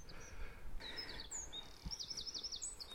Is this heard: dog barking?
no